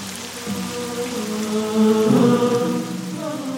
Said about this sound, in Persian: و بارانی بر آنها فرو فرستادیم پس بنگر که عاقبت گناهکاران چگونه است